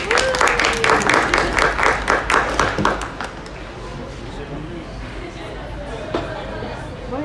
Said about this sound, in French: Merci, on applaudit.